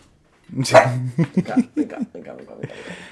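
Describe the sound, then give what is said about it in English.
A dog barks, starting with a loud, drawn-out yelp followed by a quick series of shorter yips and woofs, then a soft hiss as it quiets. “yeah, we have a dog with us”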